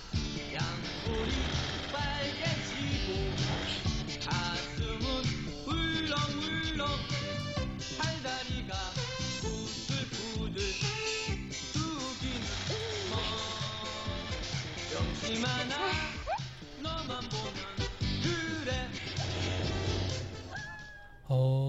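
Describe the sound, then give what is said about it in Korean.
A cheerful song from an animated TV series, about a boy's first love, plays loudly and continuously, with a sung vocal melody over full instrumental backing and a steady beat throughout. “경태의 첫사랑을 하는 소년의 음. 음. 마음을 담은 노래예요.”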